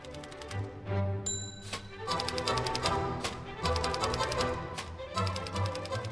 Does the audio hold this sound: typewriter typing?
yes